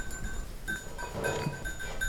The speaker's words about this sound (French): Les petits biquets.